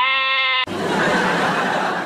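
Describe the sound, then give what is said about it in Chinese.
A single loud goat bleat, a steady, buzzy, nasal cry lasting about half a second, then cut off abruptly by a harsh, wideband rushing noise that fills the rest. “草坪不让人歇凉，不如用来养山羊。”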